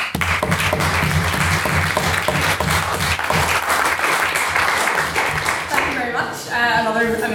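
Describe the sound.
An audience at a debate applauds a speaker after his speech, with dense, steady clapping that holds loud for about six seconds, then thins out as a man's voice starts talking over the tail end.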